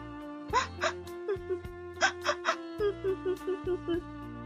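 A person sobbing in a string of short, shuddering bursts, catching breaths mixed with whimpering, mid-pitched voiced gasps, repeated a dozen times with no other voices.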